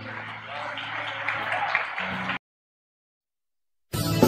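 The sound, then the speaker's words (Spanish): An audience claps together in a steady, dense burst for about two seconds, applauding the Lord, with a low murmur of voices underneath, then it cuts off and a brief noisy swell returns at the end. “Dale un aplauso ahí al Señor.”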